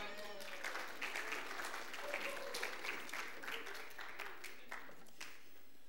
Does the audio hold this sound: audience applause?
yes